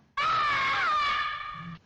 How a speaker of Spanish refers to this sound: Y de hecho, el grito,